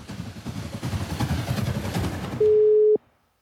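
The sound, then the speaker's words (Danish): After a stretch of muffled background noise, one steady ringing tone of an outgoing phone call to a festival participant sounds clearly for about half a second and then cuts off into silence. “Lad os høre, hvad et par af DSB's tilmeldte deltagere sagde, da jeg ringede til dem.”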